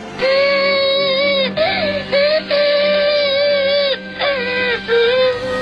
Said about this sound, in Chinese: 在机舱后面还有一个婴儿一直在哭着。